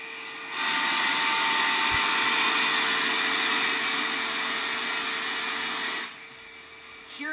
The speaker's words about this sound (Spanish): quiero que hagamos este ejercicio de escuchar un data center. Esto me dio mucha, primero que todo me un chingo con este video, pero, pero esto, esto es un data center y esto es una persona caminando. Y ahí abre la puerta el güey.